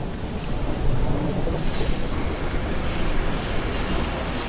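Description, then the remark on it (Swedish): A steady, dense roar of an oncoming tsunami fills the whole stretch, a broad rumbling wash like an approaching train or surging water mass, loud and continuous without breaks, no voices on top. “jag minns bara att jag springer liksom ner för en, för en backe egentligen så hör man ett, som ett tåg som är på väg emot en.”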